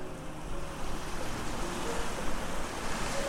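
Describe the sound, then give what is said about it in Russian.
A continuous, rushing wash of sea surf with gentle swells in loudness, waves rolling and breaking along a shoreline. No voices, just steady water noise throughout. “Потом он лежал уже на берегу, у кромки прибоя, полностью отдав себя морю.”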